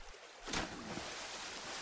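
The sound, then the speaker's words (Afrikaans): A rowing boat moves through river water, with a splashing whoosh of an oar stroke near the start, then a steady wash of water continuing at moderate loudness. “Sy gaan soontoe om te kyk wat aangaan en sy sien 'n boot aangeroei kom.”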